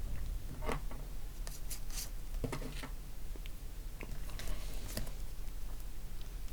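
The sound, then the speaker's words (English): Quiet scratching of a pen writing names on a map of Western Australia, moving across paper in short irregular strokes, with soft taps and scrapes over a low steady background hum. No one speaks. “Maybe I should write some names as well.”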